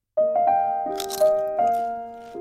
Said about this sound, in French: Croustille, hein